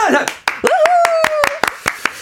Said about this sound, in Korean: 박수!